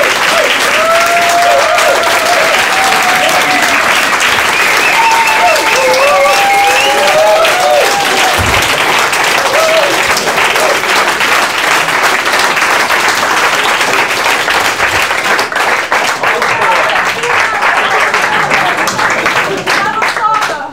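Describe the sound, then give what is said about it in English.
Thunderous audience applause fills the whole stretch, a dense, steady roar of many hands clapping, with a few whoops and cheers rising through it before it thins slightly at the end. “And all that's left for you to do is take your bow to a thunderous applause.”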